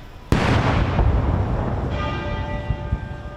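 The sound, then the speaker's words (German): A single loud cannon salute shot during the Queen's funeral procession in London booms out with a long rolling rumble, followed by the Big Ben bell ringing steadily. No voices are heard. “Während dem Trauerzug hat der Big Ben geläutet und es sind auch Kanonenschüsse ertönt.”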